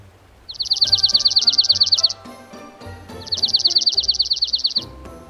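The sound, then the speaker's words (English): Two rapid, musical trills from a dark-eyed junco, each a fast run of identical high notes lasting about a second and a half, loud, with a short pause between them. “Want to know if there's a dark eyed Junco close by? Then this is what you should listen for.”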